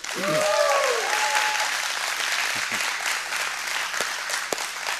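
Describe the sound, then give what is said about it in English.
A crowd bursts into sustained applause and cheering for the Saltillo campus, which has just gone live, with a few whoops and shouted voices rising over the dense clapping, which stays loud and steady throughout. “Make some noise for those guys over there.”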